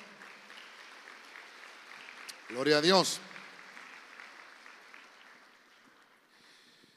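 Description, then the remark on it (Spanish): A church audience claps loudly and steadily for the Lord, a dense wash of many hands, broken briefly by a loud shouted exclamation partway through before the clapping gradually thins out. “La iglesia le da palmas fuerte al Señor.”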